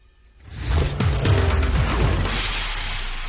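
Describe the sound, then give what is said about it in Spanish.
A car rushes past, its engine roar swelling from near silence and its pitch sliding downward as it goes away (the Doppler effect), the broad whooshing rumble lingering loudly afterward. “Este fenómeno se llama efecto Doppler y ocurre exactamente lo mismo durante la noche.”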